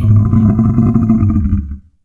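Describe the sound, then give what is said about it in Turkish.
A lion outside its cave, after finding meat left for it and sniffing the air, lets out one loud, deep roar, sustained for nearly two seconds before it trails off into silence. “Aslan dışarı çıktı. Ona sunduğu eti buldu. Etrafına bakındı, havayı kokladı. Gürültüyle kükredi.”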